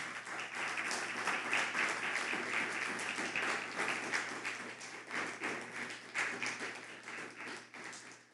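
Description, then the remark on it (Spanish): An audience bursts into sustained applause, a dense crackle of many hands clapping at a steady, loud level that fades slightly toward the end. “y aplausos a todos una vez más.”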